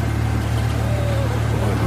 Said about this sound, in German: Guck mal, da, da kommt so ein weißes Wasserflugzeug.